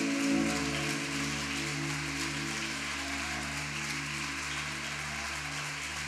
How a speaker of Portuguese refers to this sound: Dá um forte aplauso ao Senhor em nome de Jesus.